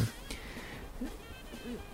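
A cat gives a couple of short, soft meows about a second apart, fairly faint against a steady low background hiss, with no one talking.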